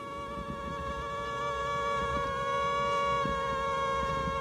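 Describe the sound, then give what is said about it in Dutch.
A male and a female insect's wingbeats hum together in a steady drone of stacked buzzing tones, their pitches interweaving and shifting as the pair, put together, change their tones to meet at the same tone; a duet studied by neuroscientist Greg Cage and Haley Smith. No talking. “ja we kunnen even luisteren naar eh, eh, neurowetenschapper Greg Cage eh, en Haley Smith, die in een TED-lezing ja, dat duet tussen mannetje en vrouwtje onderzoeken en laten horen.”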